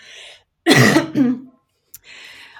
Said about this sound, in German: ich muss kurz einmal husten.